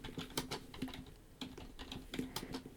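Keys clatter on a computer keyboard in quick, uneven bursts of clicks as someone types out a definition, moderately quiet, with no one speaking.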